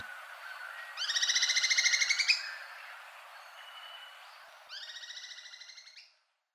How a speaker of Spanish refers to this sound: Estas grabaciones del pico de palacresti amarillo, captadas en el Valle del Cauca y Antioquia, forman parte del Banco de Sonidos de Aves Colombianas recopilado por el Instituto von Humboldt y la Universidad de Cornell.